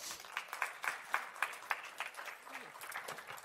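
An audience applauds a panel being invited up, with dense, overlapping claps and a few sharper, louder hand claps standing out, sustained steadily throughout at moderate volume.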